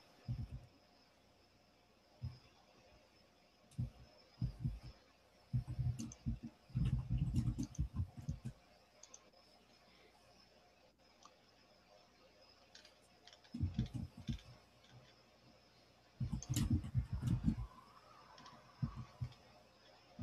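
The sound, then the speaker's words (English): Bright blue and orange plastic sandals clicking and slapping against a hard floor in a monastery in irregular bursts of footsteps, with quiet pauses between the walking stretches and a faint steady background hum. “So I got some bright blue plastic sandals that they're letting me use here, but I wouldn't dare take them out of the monastery.”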